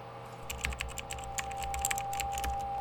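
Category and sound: household object, typing on computer keyboards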